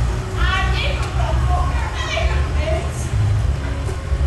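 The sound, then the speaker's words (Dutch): A child's high-pitched voice calls out several times in drawn-out, rising cries, as if for a lost mother, set against a steady hum of a sports crowd. “Iemand is zijn moeder kwijt, denk ik.”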